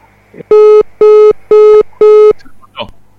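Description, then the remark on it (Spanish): A phone call drops and a line tone sounds: four loud, identical steady beeps in an even rhythm, each about a quarter-second long, followed by faint shuffling noise. “cortó, se cortó.”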